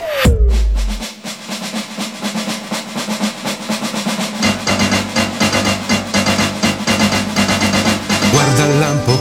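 An instrumental intro to an upbeat anime theme song plays loud. It opens with a swooping tone and deep boom, then a driving steady beat, with a heavier bass line joining halfway through.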